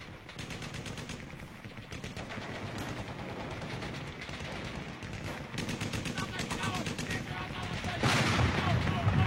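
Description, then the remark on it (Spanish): Dense World War I battlefield din of rapid machine-gun bursts and heavy booming artillery shell blasts, continuous and chaotic, growing louder and more intense toward the end. “El soldado estadounidense Joe Bonham ha sido alcanzado por la explosión de un obús mientras combate en la Primera Guerra Mundial.”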